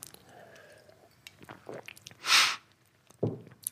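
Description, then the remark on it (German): Someone sips and swallows water: soft wet mouth clicks, a louder breathy hiss partway through, then a short gulping swallow near the end, all fairly quiet with no talking. “Ich muss noch einmal einen Schluck Wasser trinken.”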